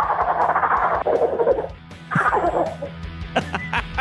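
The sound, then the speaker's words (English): A person imitates a wild turkey gobble: two loud, rapid, rattling bursts in quick succession, followed by a few softer clucking clicks, clear with no talking. “Y'all want to hear gobble one time before I get off?”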